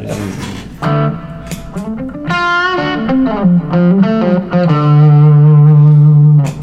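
A loud, overdriven electric guitar plays a short melodic phrase of bending single notes through a boosted amp, ending on a long sustained note. No one speaks over it.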